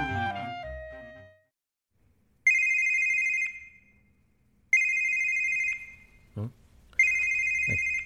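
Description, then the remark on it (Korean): A phone rings with a call from a section chief, in three long electronic bursts, each about a second long with a bright, steady tone, separated by pauses. A few short thumps fall between the rings, and a brief low tone sounds at the start. “과장님이 전화를 왜?”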